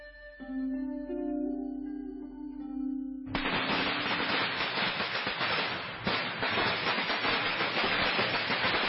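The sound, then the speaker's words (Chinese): A few seconds of sustained tonal music give way abruptly to a long, loud string of firecrackers set off for Chinese New Year (Spring Festival), a dense rapid crackle of bangs that continues without pause to the end. “在过年的时候，家家户户放鞭炮、贴春联、吃年饭，”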